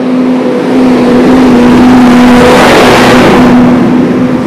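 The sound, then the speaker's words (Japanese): A truck drives past on a road, its steady engine drone swelling loudly as it nears and then easing off, with a constant hum underneath throughout. “トラックも通って本当ガンガン通りますね”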